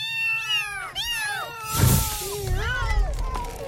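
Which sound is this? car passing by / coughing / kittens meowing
kittens meowing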